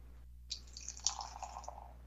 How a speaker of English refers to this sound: Yeah. This mug is good for getting a good pour a All nice right, uh, a, red ale, red yeah, color. Beautiful red ale has an off-white foamy head with lots of tiny bubbles.